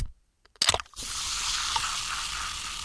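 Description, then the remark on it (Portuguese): A soda can cracks open with a sharp metallic pop after a brief silence, then a steady fizzing hiss continues to the end with no voices. “Como era óbvio, é alguém a abrir uma lata de refrigerante.”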